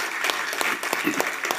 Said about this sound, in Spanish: Amén. Dele fuertes aplausos al Señor.